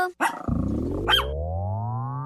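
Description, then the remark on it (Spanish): A dog gives a couple of sharp barks, then breaks into a long, rumbling growl that holds steady and rises slightly in pitch, loud. “Ven, perrito, perrito.”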